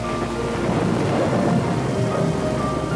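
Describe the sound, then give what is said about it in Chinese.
A thunderstorm with heavy rain: a steady, dense roar of rainfall with deep rumbling thunder rolling underneath, loud and continuous throughout with no voices. “他一边忙着固定帆船，一边听着风雨声”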